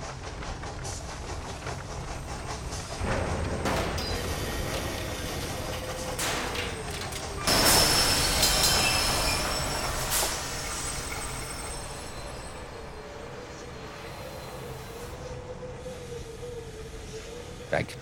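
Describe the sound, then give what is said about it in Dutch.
Steam machinery rumbles steadily with turning wheels, punctuated by louder hissing bursts of steam and a thin metallic whine running through the noise, with some wind heard underneath; continuous. “Dan hoor je hier allerlei machines. Je hoort stoom, je hoort nou ja, wielen draaien.”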